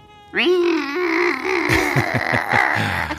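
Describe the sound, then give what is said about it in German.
A voice imitates the two-stroke engine of a tiny motorcycle, starting with a rising whine, then settling into a buzzing drone broken by rapid sputtering pulses. It's fairly loud, with no real words. “Und in diesem Moment höre ich das Geräusch von einem Motor. Es hört sich an wie ein Zweitakter.”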